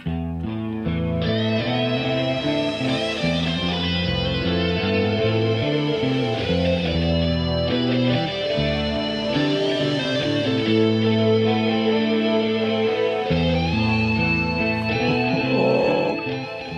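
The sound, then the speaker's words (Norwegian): A calm, bluesy electric guitar intro with sustained, ringing notes over a steady, full backing, playing at an even volume throughout with no voices. “så er det en sånn rolig gitar, litt bluesy intro.”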